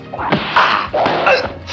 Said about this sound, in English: Just for good measure, she punches him a few more times.